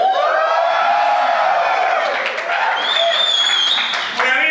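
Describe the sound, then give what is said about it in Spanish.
A large live crowd at a comedy show in El Salvador cheers and applauds loudly and continuously, with dense clapping, shouts and high whistles rising over the roar. “¿Cómo suena El Salvador? Háganme una bulla, a ver cómo suena.”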